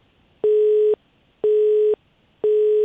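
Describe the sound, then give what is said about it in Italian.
A telephone busy tone after a dropped line: three identical steady mid-pitched beeps, each about half a second long, separated by equal silences in an even on-off rhythm. No one speaks. “Ah, abbiamo perso la linea con, eh, con Danilo, quindi vediamo se riusciamo a recuperarlo.”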